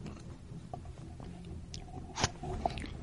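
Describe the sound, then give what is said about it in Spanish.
A quick, wet gulp as a mouthful of wine goes down in one swallow, heard quietly over faint mouth noises, with no talking. “Estaba claro que no era ninguna solución ponerse a hacer gárgaras, ni mucho menos devolver el líquido a la copa, así que lo trasegó al estómago de un golpetazo.”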